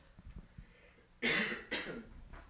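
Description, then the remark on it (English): A couple of harsh coughs burst out after a quiet stretch, loud and rasping, with the start of another at the very end. No one speaks. “So sorry for the coughing, guys.”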